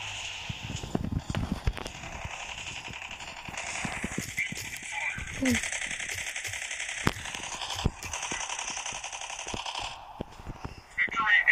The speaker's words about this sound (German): Ich sehe einen Bösen. Okay, ich werde ihn mal kurz killen. Oh, der feuert.